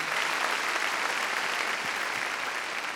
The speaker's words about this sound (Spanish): A ver, démosle palmas fuertes, hermano, al Señor. Gloria a Dios. Gloria al Señor.